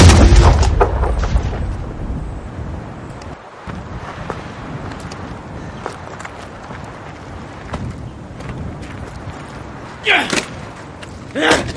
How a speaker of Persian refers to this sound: بابای بد میزنه هواپیمای بچه رو میشکن